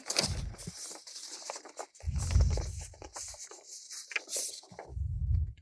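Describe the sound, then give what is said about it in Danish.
Crisp rustling and crinkling of a sheet of paper being handled, in irregular bursts with a few soft thumps, with no voices. “Og nu viser jeg dig et papir.”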